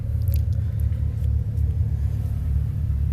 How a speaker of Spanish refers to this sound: Solo esperen un momento porque aquí la salida del parqueo, no sé por qué en este momento se hizo mucho tráfico. Pero bueno, ya casi estoy llegando a la puerta del parqueo del centro comercial.